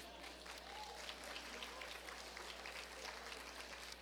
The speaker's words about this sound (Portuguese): E aí, mulheres, aplaudam ao Senhor, por favor.